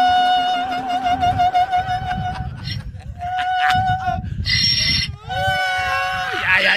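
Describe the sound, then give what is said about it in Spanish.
A person imitates a female donkey's bray with loud, strained honking cries that rise and fall in pitch over several seconds, ending in a sliding, wavering call. “yo fui a Irlanda y le pregunté a la burra cuándo fue la primera vez que hizo este ruido.”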